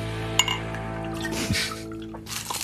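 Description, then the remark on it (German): Liquid is poured into glasses for a toast, with a sharp glassy clink near the start and a few softer taps as the drinks fill, over a steady low hum. “Zum Wohl. Zum Wohl, genau.”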